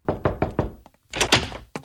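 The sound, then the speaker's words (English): An exterminator knocks on a house door: a quick series of four firm, evenly spaced knocks, followed after a brief pause by a louder, rougher burst of knocking and one last rap. “And uh, the family recognizes they have a rat problem, and so they have to reach out to an exterminator who knocks on the door.”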